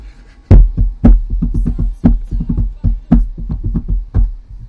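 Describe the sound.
A drum-kit beat tapped out on a tabletop: a steady, busy groove of low, dull thumps punctuated by sharper slaps about once a second, played alone without any talking.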